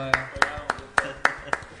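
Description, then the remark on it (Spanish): Steady hand clapping: about seven sharp, evenly spaced claps in quick succession, applauding a participant being introduced, with a faint murmur of voices underneath. “Un aplauso por favor para nuestro”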